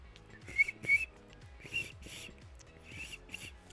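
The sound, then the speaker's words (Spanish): A voice imitates a cricket with a few short, breathy whistled chirps, uneven and faltering, mixed with airy hissing puffs, fairly quiet, with no talking. “Ya tengo la boca seca, por eso no, este, ya no me sale el sonido de, grillito.”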